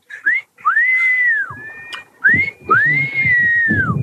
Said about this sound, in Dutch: Ik laat een stukje horen. Kijk, al die eh, stoere bouwvakkers doen altijd fluiten naar die vrouwen.